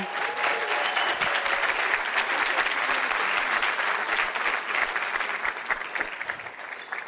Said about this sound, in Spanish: Así que yo quiero que por favor a todos sus diamantes regálenle un fuerte, fuerte, fuerte aplauso.